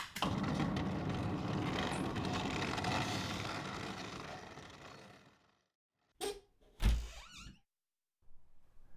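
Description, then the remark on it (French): A long scraping, rumbling slide of a bedroom window and closed shutter being pushed open, followed after a pause by two sharp knocks and clatters, then a soft rustle. “Il attrapa au vol le linge posé sur le rebord de l'évier et fonça ouvrir la fenêtre et voler.”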